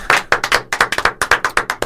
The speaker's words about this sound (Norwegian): Skal vi, vi ha en applaus, eller? Vi må ha det.